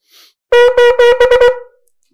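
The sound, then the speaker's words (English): A shofar blows loud shevarim-teruah notes: three broken medium-length blasts run straight into a quicker string of short staccato bursts, trailing off at the end. No one speaks. “So your shvarim trua is going to sound like this.”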